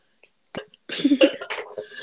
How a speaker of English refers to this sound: Coughs.